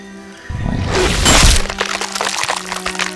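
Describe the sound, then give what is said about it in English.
A loud, violent burst of crunching and tearing, like bones breaking, as a creature tears through a person's body; it swells for about a second over a low droning hum, then trails off into scattered crackles and thuds. “you hear this horrible crunching sound as it tears through Naomi”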